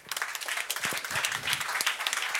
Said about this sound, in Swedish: De får också en applåd.